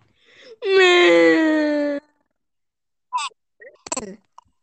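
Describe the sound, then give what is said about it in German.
A voice lets out a loud, drawn-out wailing cry of mock sobbing lasting over a second, followed by a few short sniffly, whimpering bursts. “Ich höre ihn weinen. Da hat doch gerade einer geweint.”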